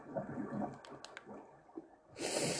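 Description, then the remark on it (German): Bubbling, gurgling video game lava with soft irregular pops and blips, moderately loud, heard with the player standing right next to the lava, ending in a brief bright hissing burst. “Oh, ich bin ganz dicht bei Lava. Ich bin ganz dicht bei Lava. Hört man safe auch.”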